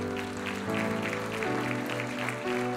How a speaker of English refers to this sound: We applaud for their journey. Saints, put your hands together for those that are faithful to come down.